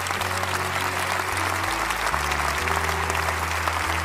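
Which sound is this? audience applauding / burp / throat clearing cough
audience applauding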